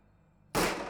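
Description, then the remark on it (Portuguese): After a brief hush, a single loud pistol shot cracks out, its sharp blast trailing into a harsh, lingering roar. No voices are present. “O trovão retumbante do tiro o deixou surdo por um tempo, e as nuvens de fumaça o deixaram tossindo.”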